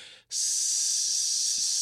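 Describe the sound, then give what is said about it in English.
A voice imitates sizzling frying with a steady hiss: a short burst, a brief break, then one long unbroken sizzle held to the end. No words are spoken. “You could feel it fry. Like you could feel like you'll lay down and I'll hear this.”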